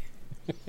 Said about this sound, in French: Pardon. C'est mon chat. Elle veut participer à Doctor Watt aussi.